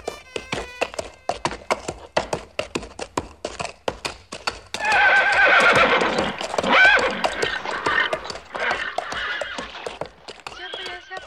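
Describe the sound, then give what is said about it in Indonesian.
Steady clip-clopping hooves of a horse ridden by a woman beat out a brisk rhythm, then the horse lets out a loud, drawn-out neigh in the middle before the hoofbeats carry on. “Siapakah wanita penunggang kuda itu?”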